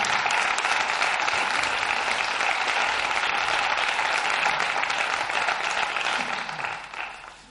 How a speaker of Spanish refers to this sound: Por tanto, pido, pido un aplauso para ellos, ¿verdad? Pido un aplauso para ellos, estén o no estén.